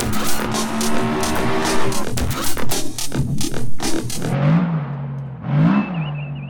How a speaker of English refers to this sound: We see here in Bay 1 a car is being tested for engine idle noise.